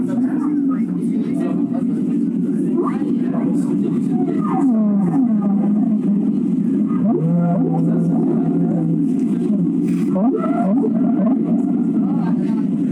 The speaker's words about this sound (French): Lors de la migration des baleines à Bosse, il est fréquent de percevoir leur chant à plus de 1000 km.